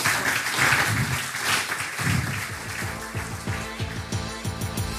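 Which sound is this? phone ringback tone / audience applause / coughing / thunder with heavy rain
audience applause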